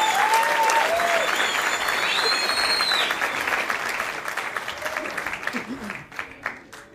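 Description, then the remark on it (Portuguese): A crowd applauds steadily, dense clapping mixed with a few whistles and cheers, holding loud for several seconds before thinning out into scattered claps at the end. “Mais palmas, moleque!”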